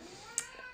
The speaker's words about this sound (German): Oh Gott, die Katz macht mich fertig.